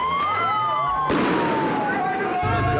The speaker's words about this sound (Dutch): dit jaar was het echt extra heftig. Want normaal is het gewoon vuurwerk en lekker siervuurwerk. Is het gewoon een drukke straat en lekker leuk gezellig.